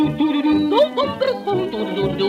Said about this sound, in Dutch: Eerst de trompet, de klarinet, de saxofoon,